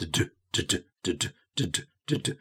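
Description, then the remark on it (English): A voice imitates a pile driving machine breaking up rock while digging foundations on a building site, making five evenly spaced double thuds like "dun-dun" in a steady, forceful rhythm with short pauses between. “particularly at the beginning when they are drilling down to make the foundations or they are digging the holes for the foundations and they come across some rock, then they have to use these pile driving machines to break up the rock.”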